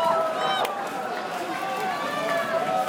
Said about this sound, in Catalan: treballadors d'Apple que passen pel costat de les cues, doncs, eh, saludant a tota la gent que està fent cua. La veritat és que hi ha han passat com 50 treballadors com a mínim i sembla que és interminable. Són moltíssima gent. Us deixo escoltar-los.